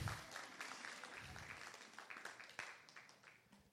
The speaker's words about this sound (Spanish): Puede aplaudir, si no aplaude sigue siendo verdad también.